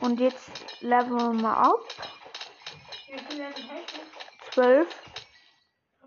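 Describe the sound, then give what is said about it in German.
Several quick, light clinks of a video game's bottle of enchanting break in a rapid, uneven series while people talk over them. “Enchanten-Flasche Flasche, und das klingt so.”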